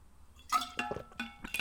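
drinking water

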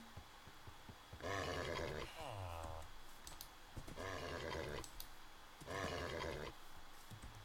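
horse neighing

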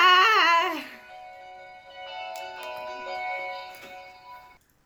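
mobile phone ringing

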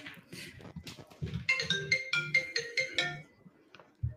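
mobile phone ringing

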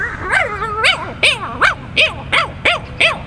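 dog barking

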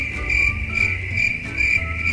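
cricket chirping

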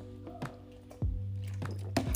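sipping water

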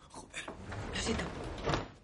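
door closing

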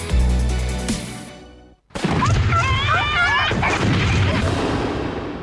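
fireworks explosions

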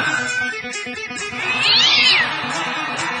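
cats meowing

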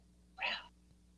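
cat meowing

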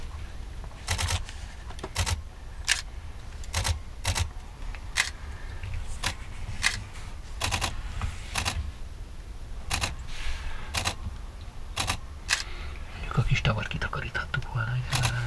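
camera shutter clicks

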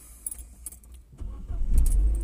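getting into a car

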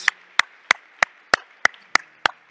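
audience applauding

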